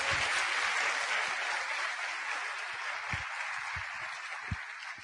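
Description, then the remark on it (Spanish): Steady applause from an event audience applauding themselves after a one-minute exercise of talking to the person beside them, a dense wash of many hands clapping at once that holds for the whole stretch and tapers only slightly toward the end, with no voices heard. “Ahora sí, regálense un fuerte aplauso entonces.”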